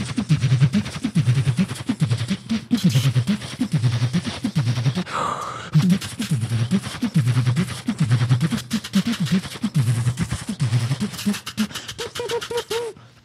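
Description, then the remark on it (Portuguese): Vocal beatboxing imitating a samba school drum section (bateria), with a fast, steady groove of deep bass thumps and sharp clicking snares. A short breathy pause falls midway, and a few whistle-like tones appear near the end. “OS REIS DO BEATBOX”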